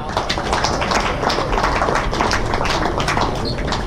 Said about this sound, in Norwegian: Men 10-1-seier, det fortjener en applaus, vel.